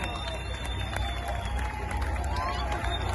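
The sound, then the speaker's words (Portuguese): A crowd applauds a band steadily, dense overlapping claps forming a continuous wash of noise, with scattered cheers and murmuring voices mixed in throughout. “Salva de palmas para essa banda aqui que largou é a família para tá estar aqui com vocês meus irmãos, minha família.”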